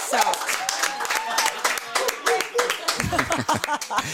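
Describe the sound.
Dense, ragged clapping from a small group at a listener's home in Storvreta during an Energy Morgon visit, applauding the host, a steady patter of many hands spread across the whole clip, with voices and cheering mixed in, growing busier toward the end.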